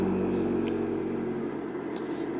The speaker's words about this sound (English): Okay, with a lovely loud car starting outside, sounds like a Porsche or something